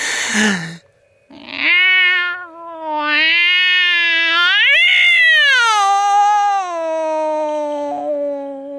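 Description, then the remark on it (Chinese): A cat lets out a long, shrill, wavering cry that sounds like a child wailing, rising and falling in pitch over several seconds after a brief noisy burst at the start. “猫，仿佛是为了验证我的想法，这毛烘烘的东西发出了一个刺耳的、犹如小孩哭泣一般的声音。”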